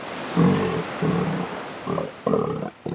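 A fur seal named Pascal, living in Mariupol, barks four times in quick succession, loud, each call a rough, throaty burst with short pauses between, and no voices present.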